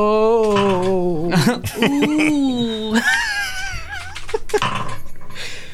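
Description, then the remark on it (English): A man's voice imitates a drawn-out pained moan, a cry of instinctive pain rather than a clenched-teeth sound or hiss, rising and falling in wavering groans with strained, breathy breaks, fairly loud, with no other sounds around it. “it's not just a, a painful clenched teeth sound or a hiss. It's it's a true cry of instinctive pain. A man moan, one might say.”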